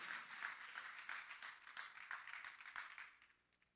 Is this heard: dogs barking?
no